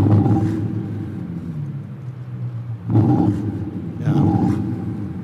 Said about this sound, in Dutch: Dus je kunt die 850 pk in één keer los laten branden bij het stoplicht. En ook een 1.6 eh, V6 eh, met turbo. Die motor, die motor bewaren we voor een andere auto. Een ja. geluidje.